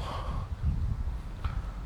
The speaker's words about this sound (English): Hey, don't fixate on me clearing my throat. Fixate on the message.